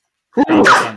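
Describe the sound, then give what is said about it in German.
A single loud sneeze, a short sharp intake followed by a burst of breathy noise that fades out over about half a second. “oh, Gesundheit!”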